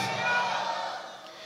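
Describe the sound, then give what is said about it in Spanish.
A church audience shouts "gloria a Dios" (glory to God) together in one loud, sustained burst of many voices, which swells briefly and then fades away within a second and a half. “¿Tienen fuerza para gritar un fuerte gloria a Dios, hermanitos?”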